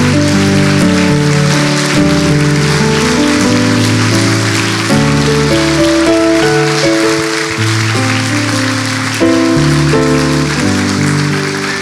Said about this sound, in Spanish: ¿Qué tal si todos juntos aplaudimos al Señor?